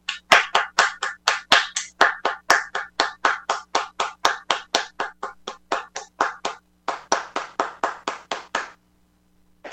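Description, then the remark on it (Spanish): Steady, evenly spaced hand claps after a poetry reading on Bata CM Radio, about four per second, crisp and loud, with a brief pause near the end before a final burst stops abruptly. No voices. “¡Aplausos, por favor!”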